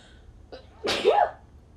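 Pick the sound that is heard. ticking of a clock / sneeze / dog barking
sneeze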